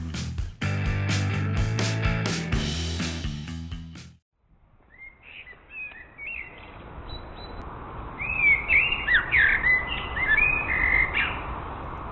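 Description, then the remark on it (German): A short burst of music cuts off, then an outdoor ambience opens with a Eurasian blackbird singing clear, fluting phrases, sporadic at first and growing fuller and louder toward the end. “Das ist eine Amsel.”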